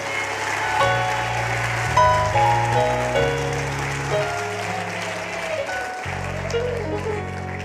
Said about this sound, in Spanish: Si lo cree, dale un aplauso fuerte al Señor. Más fuerte.